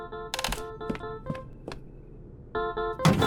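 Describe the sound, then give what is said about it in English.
Irregular clunks and clattering knocks as objects are shoved and jostled about in a drawer while someone searches for a phone, with several sharp impacts and a busier burst of rattling near the end. “It's in this drawer. Lee, don't just go knocking around stuff in here.”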